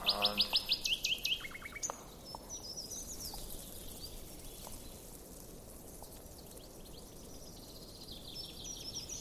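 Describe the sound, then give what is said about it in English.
Rapid, repeated bird chirps ring out loudly in the first two seconds in woods by a pond, then fainter calls continue sporadically over a steady outdoor hiss, with birdsong scattered through the rest. “There's bird calling.”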